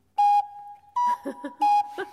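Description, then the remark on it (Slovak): Organ pipes blown into in a two-note cuckoo call a third apart, a higher tone dropping to a lower one. The breathy, whistling notes repeat twice, with brief laughter and murmuring voices between them. “Môžeme aj kukučku urobiť.”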